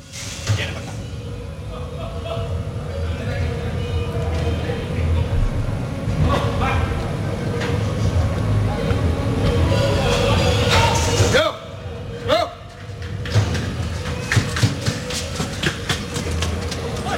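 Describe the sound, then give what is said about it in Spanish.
Steady rumbling, rattling ambience inside the bull pens of the Utrera bullring before a 557-kilo Fuente Imbro bull comes out into the ring, with a couple of sharp bangs and clatters near the end and muffled voices faintly in the background. “Azul y oro, oímos el interior de Corrales.”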